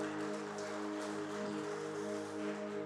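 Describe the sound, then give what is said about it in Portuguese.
An audience at a church service applauds Jesus steadily, a dense, even patter of many hands over a sustained keyboard chord that holds throughout, with no one speaking. “Se veio, começa a aplaudir a Jesus aí. Vamos lá, vamos aplaudir a Jesus.”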